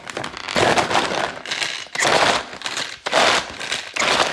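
Loud, dense crackling and spitting of steaming hot fat sizzling under a pan lid, coming in rapid bursts that swell and dip in waves, with no talking.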